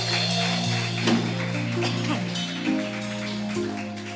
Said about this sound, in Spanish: Vamos a darle un aplauso al rey, aleluya.